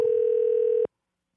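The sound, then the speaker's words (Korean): A telephone ringback tone plays as Park Myung-soo's Radio Show places a call to a listener: one steady, electronic hum lasting under a second, fairly loud and clear, then cutting off abruptly into silence. No one speaks. “전화 한번 걸어보겠습니다.”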